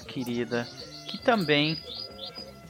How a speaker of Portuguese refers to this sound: tem um passarinho cantando sem parar